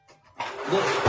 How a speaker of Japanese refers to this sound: じゃあもうちょっとしたライブ終わって、僕は掃除をしようかと。掃除機だ。掃除機をして、